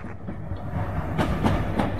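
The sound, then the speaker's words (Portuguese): A tram rumbles steadily along its rails, with a few sharp rhythmic clacks from the wheels passing over track joints, continuous with no voices. “Porque o bonde passasse à frente de um consultório médico em que se via grande número de pacientes esperando a vez”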